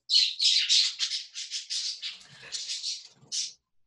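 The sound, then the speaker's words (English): Small pet birds squawk and screech while fighting, one blue bird fluttering its wings, in a rapid, agitated series of harsh calls, fairly loud, with a brief pause before one last sharp squawk. “uh, I'm going to throw something at you guys so the birds are fighting.”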